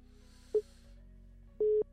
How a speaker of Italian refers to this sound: Quarto squillo